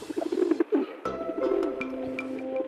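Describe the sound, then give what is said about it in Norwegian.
Soft, low pigeon cooing from a nest between two windows just a few centimetres from the microphone, a murmuring run of throaty coos with faint outdoor background noise and a few brief higher chirps, no talking. “duerede eh, rett ved siden av seg. Det er bare noen centimeter unna av mikrofonen, egentlig.”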